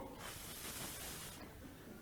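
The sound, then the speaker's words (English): A steady, breathy whoosh as someone blows air to imitate the wind for a pretend storm, lasting just over a second before fading to quiet background; fairly soft, with no talking. “And what I want you guys to do as I'm doing this is you're the wind. So you stand here and go,”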